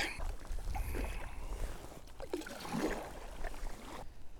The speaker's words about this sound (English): Quite a breeze picking up, which is not a bad thing because uh, it'll just blow me out of the loch, which would be alright.